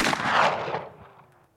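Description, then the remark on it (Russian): A single loud pistol gunshot cracks out, its broad blast ringing and decaying over about a second into a fading echo. No voices are present. “Есть же ситуация, когда девушка э, типа фоткалась с пистолетом, а он выстрелил.”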